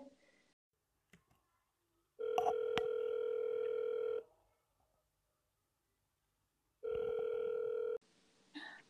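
A phone call's ringing tone, as someone calls two friends, sounds twice: a steady, fairly loud electronic tone lasting about two seconds, a pause, then a shorter repeat, with a few faint clicks beforehand.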